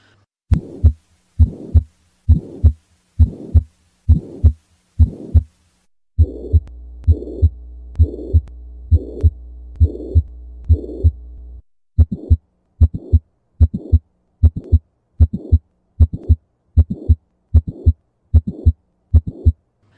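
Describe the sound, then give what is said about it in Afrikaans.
A steady heartbeat thumps about once per second with no talking; through one middle stretch a continuous low whooshing heart murmur fills the gaps between the two heart sounds. “Die sjoep klank wat mens kan hoor tussen die lip en die dip Daai sjoepklank kan een van twee oorsake hê.”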